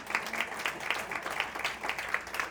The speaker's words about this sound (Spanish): Pero hay, hay algo mucho más grande que sucedió en la historia y fue cuando Jesús venció a la muerte. Cuando, amén, eso sí había que aplaudir.